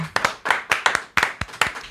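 A short burst of hand clapping for a music track, about ten sharp, slightly uneven claps in quick succession, like a few people applauding, with no voices over it.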